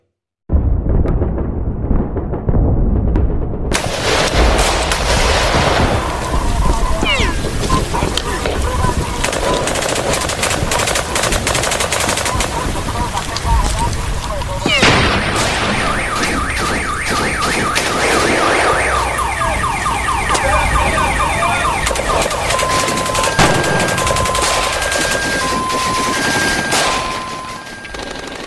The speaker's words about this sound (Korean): 지구상 어느 곳에서도 다시는 되풀이되지 않길 바라는 마음으로 전쟁터의 총성과 포격 소리 들려드렸습니다.